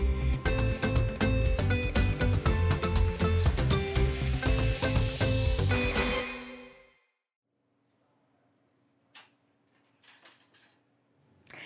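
A pot of fish stock (fumet) simmers in a kitchen, being made for a bouillabaisse later in the day: a dense, steady bubbling and crackling for about six seconds before fading out to a quiet hum with a few faint clicks.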